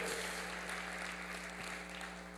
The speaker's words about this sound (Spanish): Démosle un fuerte aplauso a nuestro Padre.